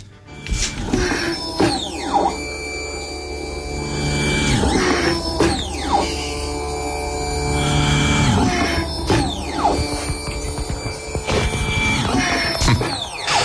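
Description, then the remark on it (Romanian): A 3D-printed mechanical ventilator runs, its motor whirring steadily with repeated sweeping whines that rise and fall in a regular cycle, loud and mechanical with no voices. “Dacă vreți să auziți cum face ventilatorul, uite cam așa.”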